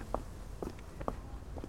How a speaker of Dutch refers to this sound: Dan loop ik snel terug